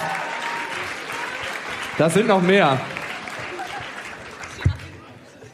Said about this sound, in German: Ein Applaus schon mal für die ersten drei.